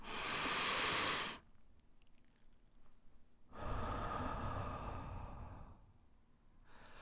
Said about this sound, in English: Taking in a lot of air, then absorbing the oxygen, then exhaling all the used air is an effective way to increase your oxygen. So it's like this.